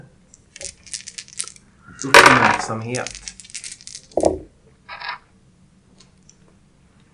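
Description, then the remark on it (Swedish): Dice clatter and tumble across a hard tabletop in a short burst of rattling clicks, rolled for a perception check in a tabletop role-playing game, with a voice speaking briefly around the roll. “Eh, medan ni står där så eh, kan ni slå ett perception-slag.”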